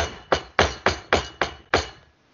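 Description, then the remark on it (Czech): Six firm knocks on a door in an uneven rhythm, sharp thuds each with a short ringing decay, then quiet. No one speaks. “Někdo klepe.”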